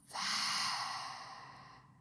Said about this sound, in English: i want you to just take a deep breath in through your nose and then out through the mouth. Gonna do that again in through the nose, out through the mouth.